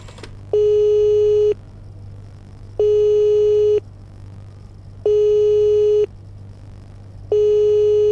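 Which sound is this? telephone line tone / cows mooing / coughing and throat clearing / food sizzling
telephone line tone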